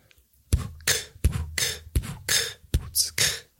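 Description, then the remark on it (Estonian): A fairly loud fit of coughing after trying an inhaled beatbox snare (k) sound: about seven harsh, breathy bursts in quick, uneven succession with no talking. “mul ajas köhima see natuke, kui ma proovin seda praegu”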